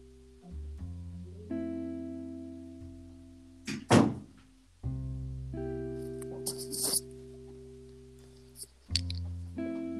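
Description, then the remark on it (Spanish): A single dull thud of a door shutting, rising over a steady backdrop of sustained tonal hum, with a few fainter knocks and rustles afterward. “Ah, solo se escuchó una puerta.”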